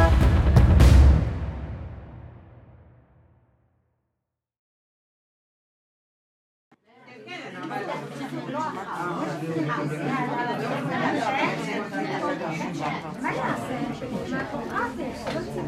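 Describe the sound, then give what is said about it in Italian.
Dense crowd chatter fills the large room of a neighbourhood association hosting a heated discussion: many overlapping voices of Arab Jews, Muslim Palestinians and secular Israeli women murmuring steadily after a short silence, preceded by a low resonant tone that fades away at the start. “Il rumore che sentite, le voci che sentite sono quelle di uno stanzone di un'associazione di quartiere che è pieno di arabi ebrei, di palestinesi musulmani, di israeliane laiche e che ospita una discussione accesa.”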